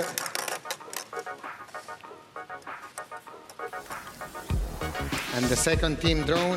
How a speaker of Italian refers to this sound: Il rumore che sentite di sottofondo alla sigla della riserva è il rumore della mano di Francesco Totti che smucina nelle palline della UEFA Champions League.